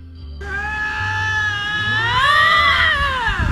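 A single drawn-out cat yowl, loud, rising and bending in pitch as it wails for about three seconds with no talking.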